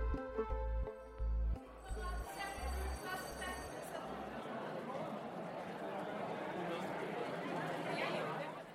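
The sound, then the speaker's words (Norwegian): A fully seated audience of nearly 800 at the main stage of the Nationaltheatret murmurs before the show 'Verdiløse menn' on a Friday in late May. It is a steady, dense babble of overlapping voices, with no single speaker standing out; a few low musical tones and clinks sound in the first seconds. “Nasjonalteatrets hovedscene er fullsatt. Det er en fredag i slutten av mai, og nesten 800 publikummere er klar for forestillinga 'Verdiløse menn'.”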